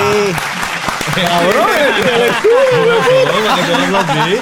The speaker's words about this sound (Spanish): Fuerte aplauso, puñeta.